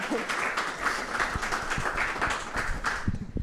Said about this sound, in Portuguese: Um aplauso para a Joana Gama, por favor.